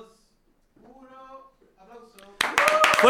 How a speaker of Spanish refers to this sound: Ya, ya entonces volvemos. Volvemos con un aplauso así como, ¡eh! Ya. Va, uno.